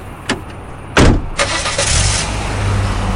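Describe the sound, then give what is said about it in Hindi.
A small i20 hatchback: a sharp door thump as a woman opens it and gets in, then the engine starts and builds into a steady rising roar as the car pulls away. No one speaks. “अपनी आई ट्वेंटी का दरवाजा खोला और उसमें बैठ के चिड़िया की तरह फुर हो गई”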